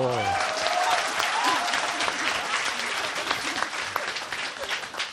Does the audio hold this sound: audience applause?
yes